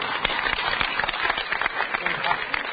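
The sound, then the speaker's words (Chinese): An audience at an errenzhuan performance breaks into applause, a dense, steady patter of many hands clapping at once that holds at a fairly even loudness throughout, with some voices mixed in beneath. “这不鼓掌那干啥呀？”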